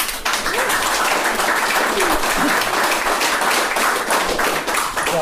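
A crowd applauds steadily, dense overlapping hand claps forming a loud, even wash of noise that holds for several seconds with faint voices mixed underneath.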